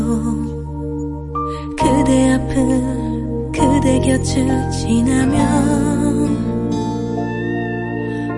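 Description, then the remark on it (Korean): A song plays with a woman singing a slow, emotional melody over full instrumental backing. The music is loud and continuous, swelling after a brief softer opening. “많이 힘드신 분 같아서 어, 노래 들어볼게요.”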